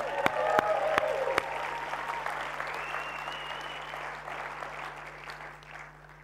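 A crowd of people at a morning gathering claps steadily for a woman's work at a restoration retreat, the applause loud at first with a few sharp individual claps, then gradually thinning and fading out over several seconds.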